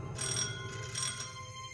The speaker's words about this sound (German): Es ist schon spät, fast halb elf, als es an der Haustür der Familie Kerner klingelt.